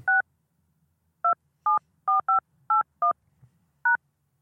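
Eight short DTMF keypad beeps are pressed one at a time at an uneven pace, like a phone number being typed in. Each tone is clear and close, with near-silence between presses.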